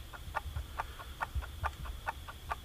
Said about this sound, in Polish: A ja, y, a ja naciskam przycisk reset. Zaczęło coś tak tykać. Sekundnik.